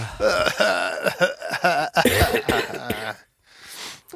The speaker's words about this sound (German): Ach, Bröckelhusten.